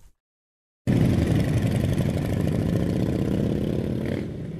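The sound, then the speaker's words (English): After a brief silence, loud motorcycle engines of scores of bikers rumble steadily along KE Masinga Road in Durban during a peaceful protest ride to the Durban Magistrate Court, several bikes idling together with a rough, clattering throb and occasional revs that ease off slightly at the end. “Traffic came to a standstill along KE Masinga Road in Durban as scores of bikers made their way to the Durban Magistrate Court to lay flowers and crosses as a memorial for those that have been killed in farm attacks.”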